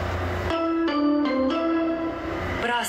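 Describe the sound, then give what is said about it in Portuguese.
A subway train heading for Paraíso station rumbles steadily with sustained tonal whines that shift pitch in steps, like motor hum during acceleration, loud throughout with no talking. “Inclusive, o metrô é para mim, meus, são meus pontos de referência, cada estação.”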